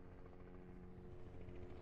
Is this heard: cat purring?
no